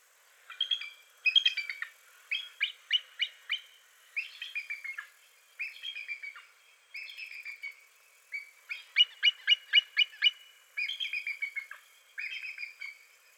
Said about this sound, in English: Television and movies have been lying to us for years because the real call of the bald eagle is not as impressive as they would like it to be. This is what the call of a bald eagle actually sounds like.